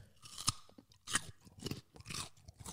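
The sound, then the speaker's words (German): Crisp crunching of a raw carrot being bitten and chewed, with several sharp crunches spaced unevenly over a few seconds, no talking. “Oder eine Moorrübe, ein Mörchen. Alter, du bist echt gut.”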